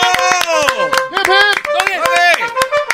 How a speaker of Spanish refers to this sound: No, pero déjale aplausos. bravo, maestro, bravo. Bravo, gran líder. Gracias.